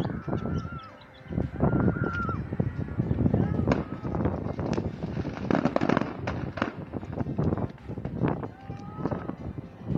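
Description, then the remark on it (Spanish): A chaotic barrage of exploding fireworks from an explosion at a fireworks warehouse in San Pedro de la Laguna, Zumpango, State of Mexico, with dozens of sharp bangs and crackles firing in rapid, irregular succession, loud and continuous, while people's voices shout and call out underneath. “fue el saldo de una explosión en un polvorín en la colonia de San Pedro de la Laguna en Zumpango, Estado de México, lo que generó pánico entre los vecinos de la zona y una importante movilización de cuerpos de emergencia, así se escuchó la explosión.”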